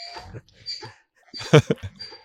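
A donkey brays: a few rough, wheezing bursts that build to one loud, harsh honk and then trail off into short gasping notes.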